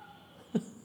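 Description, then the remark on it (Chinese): A single short, normal cat meow, a quick mid-pitched cry that stands out on its own against a quiet, faintly hissy background. “好啊，一般正常的猫叫声应该是这样子啊。”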